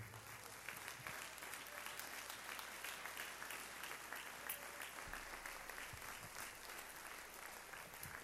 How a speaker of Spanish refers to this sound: Fuerte ese aplauso al Señor y con sus labios dele su mejor alabanza a Él.